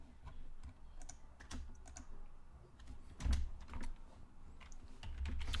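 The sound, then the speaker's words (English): Rapid, irregular keyboard typing, a steady patter of clicky keystrokes with brief pauses, over a low background rumble and no speech, as someone searches Google live. “Hold on, live googling.”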